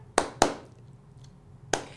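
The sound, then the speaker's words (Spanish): Four sharp hand claps in two quick pairs, with a short pause between the pairs, crisp and fairly loud against a quiet background. “Te doy aplauso.”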